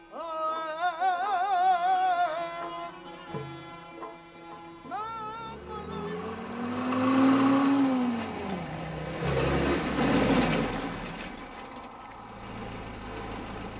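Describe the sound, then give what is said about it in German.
A car engine draws near with a swelling, rushing roar, then the sound of hard braking as it slows, barely stopping for a person coming at it with arms spread wide, loud, with no one speaking. “Ich hätte fast nicht mehr bremsen können.”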